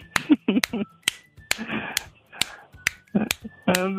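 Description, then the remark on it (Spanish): Someone imitates the clapping people were doing at a friend's house, with about nine sharp, crisp claps in an uneven rhythm, separated by short voiced vocal sounds and murmurs. “Que estaban como aplaudiendo.”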